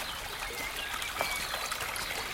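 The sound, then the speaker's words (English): Steady rushing of the Hurunui River and the countless streams feeding it in the New Zealand bush, a constant hiss and burble without pause, even in level, with no voices present. “The sound of rushing water is constant from the Hurunui River next to me, but also from the countless streams feeding it.”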